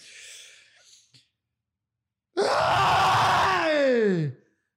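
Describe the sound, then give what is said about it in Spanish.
A loud, drawn-out shout bursts in after a brief quieter stretch, straining and sliding downward in pitch for about two seconds before cutting off abruptly. “Mierda, y ese grito, no joda.”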